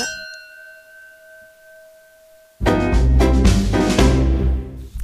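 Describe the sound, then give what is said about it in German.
A single bright clink of wine glasses in a toast, filled with Kalterer See wine, rings out with a clear, sustained tone fading over a couple of seconds, then loud dense music or noise abruptly takes over. “Also wir stoßen nicht nur an, wir trinken den auch.”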